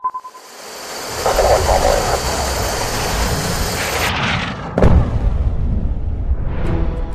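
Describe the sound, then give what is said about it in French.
A cinematic soundtrack from a promotional video for the South Korean maker KAI's fighter jets: a loud, sustained jet roar that cuts off abruptly, a heavy booming hit, then a rising whoosh as the engine noise surges back. No one speaks. “On entend une vidéo de promotion pour les avions de chasse du sud-coréen KAI.”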